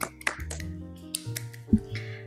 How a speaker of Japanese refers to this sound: ちょっとそろそろ拍手をやめていただいて